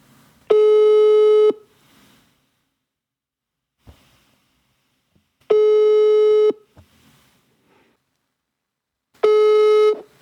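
A telephone ringback tone sounds while a call is placed: three steady one-second buzzy tones separated by about four seconds of near silence, clear, with no one speaking.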